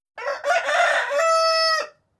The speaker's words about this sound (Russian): Смешно было, что петух у меня тусил сутки до этого в кабинете, у меня приходили клиенты, я тогда еще принимала вживую только. А он очень разговорчивый петух оказался. Поэтому периодически из кабинета доносилось вот это кукареканье.